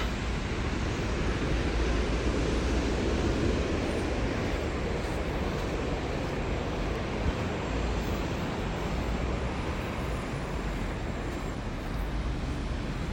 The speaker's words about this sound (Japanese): ちょっと波の近くに来たのでまた波の音が大きくなってきたんでしょうか